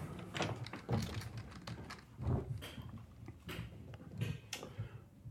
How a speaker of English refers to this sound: Um, closing doors.